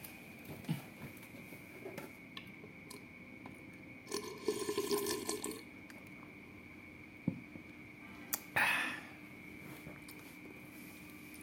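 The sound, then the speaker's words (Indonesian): Someone sips coffee: a longer wet slurp, then a short sharp sip a few seconds later, with faint liquid clicks and drips between them over a quiet steady hum. No one speaks. “gue nyeruput dulu sebentar”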